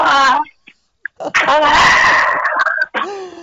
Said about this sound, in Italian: Ah sì? Ho sentito un gran sbadiglio.